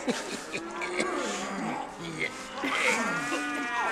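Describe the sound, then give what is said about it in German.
Cows moo over and over in an open-stall barn, several long, drawn-out calls overlapping one another, loud and continuous for the full few seconds. “Du bist meine, meine Lieblingskuh.”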